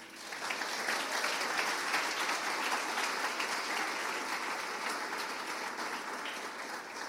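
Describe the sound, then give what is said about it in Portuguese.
A crowd breaks into steady applause in the name of Jesus, many hands clapping together in a dense, even roar of claps that holds for several seconds without any talking. “Você pode aplaudir em nome de Jesus?”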